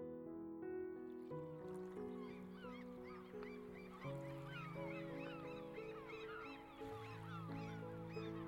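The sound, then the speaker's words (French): A flock of seagulls calls continuously in a sunny sky, many short overlapping cries scattered throughout, over a steady bed of sustained musical tones. “Dans le ciel, il y a des mouettes qui livrent le journal.”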